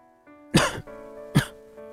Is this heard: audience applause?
no